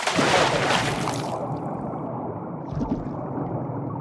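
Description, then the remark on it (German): A loud splash opens as Pinocchio, turned into a donkey, is thrown into water with a rope around his neck to be drowned, followed by a steady stream of gurgling, bubbling water as he sinks, without any voices. “Das Eselsfell sog sich voller Wasser und Pinocchio ging unter um den Hals einen Strick, an dem ihn das Männchen wieder herausziehen wollte, sobald er ersoffen war.”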